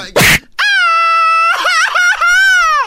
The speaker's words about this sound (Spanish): Ahora resulta que gritan aquí llorando, ¿no? Así es en la canción.